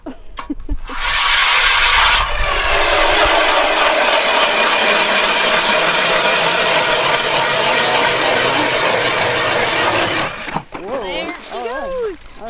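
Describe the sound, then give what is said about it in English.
A motorized ice auger roars to life on a breezy day and drills steadily through lake ice for about nine seconds to check the ice depth, with a harsh, grinding whine, then shuts off as voices briefly take over. “All right, let's see how deep the ice is.”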